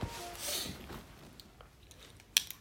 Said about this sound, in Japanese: ちょっとね、今あの、出勤前で、えー、まだ家にいるんですけれども、着替えたり、ちょっとそういう出勤前の仕事の準備をしてたりするので、ガサガサもしかしたらうるさいかもしれません。